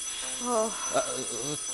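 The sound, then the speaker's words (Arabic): A doorbell rings in a short, bright burst of harmonic tones, then sounds again briefly at the end, clear, as a visitor arrives at the door of a house. “ترى من هذا؟ افتحي الباب يا ويني”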